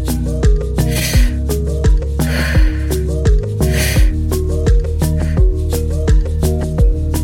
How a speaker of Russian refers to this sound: Возвращайся к паттерн дыхания. Вдох. Выдох. Вдох. Выдох.